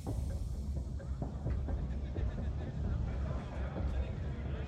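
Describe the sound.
A train from Oslo rolls into Hamar station on 14 February 1942 with a steady, heavy low rumble, scattered metallic clanks and squeaks over it, and indistinct voices murmuring in the background.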